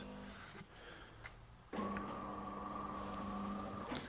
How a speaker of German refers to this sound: Ganz kurz Pause. Kaffeemaschine.